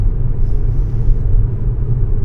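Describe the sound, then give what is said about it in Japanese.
Steady low rumble of a car interior while driving, recorded with an M2 recorder from inside the car, a continuous deep road and engine drone with no voices. “ただいま車に乗っております。”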